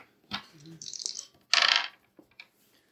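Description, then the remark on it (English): Dice clatter and rattle across a tabletop in a few quick bursts, a bright clicking tumble that settles after a couple of seconds, fairly clear, rolled during a tabletop game. “Roll your fascist dice.”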